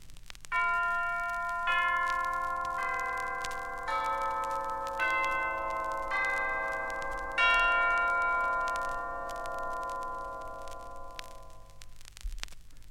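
Glockenspiel bells ring out in a slow sequence of about seven struck notes, each bright, clear tone sustaining and overlapping the next as they shimmer together, played alone without any voices.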